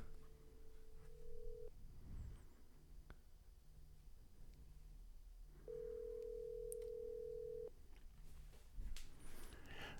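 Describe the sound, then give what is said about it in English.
An outgoing call to a man set up in a pub rings through a phone line: a steady ringback tone sounds twice, each burst about two seconds long with a long gap between, over faint line noise and occasional clicks. “I'm queuing it up. Listen to it ring.”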